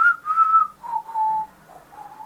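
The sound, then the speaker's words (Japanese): A person whistles a short, wavering little phrase of a few notes, each tone gliding slightly lower, clear with no talking around it. “中途半端 ささやかな口笛が”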